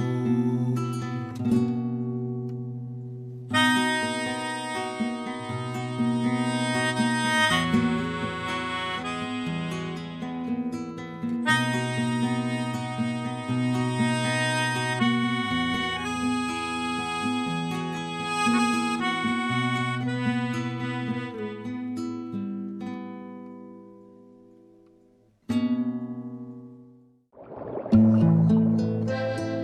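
A recorded 2014 song by a university campus band plays with no voices: full, sustained chords held steadily at an even loudness, briefly fading out near the end before a short, louder burst of music closes it.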